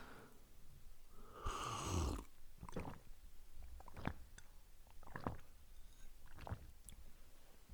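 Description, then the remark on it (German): Close, loud swallowing of water while drinking near the microphone: a longer gurgling gulp early on, followed by several short, wet throat clicks spaced irregularly, with no talking. “okay, ich versuche auch, versuch auch penetrant zu schlucken.”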